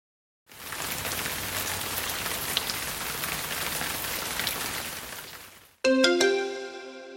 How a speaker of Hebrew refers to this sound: זה היה גשם הפוגע בצמחייה בגינה.